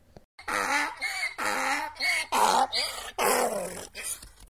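A donkey bray played as a sound effect, a series of loud, harsh, wheezing hee-haw blasts alternating in pitch for several seconds, unaccompanied by any talking.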